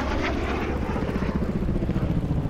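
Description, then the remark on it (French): A steady, droning roar of propeller engines from AD4 aircraft flying ahead at some height in the morning, passing overhead, with a rhythmic low-end throb running continuously through the short stretch; no one speaks. “Les AD4 partent devant, un peu en hauteur.”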